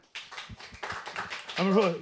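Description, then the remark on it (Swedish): A brief round of applause from a small audience, quick scattered claps lasting under two seconds before a voice cuts in at the end. “En applåd.”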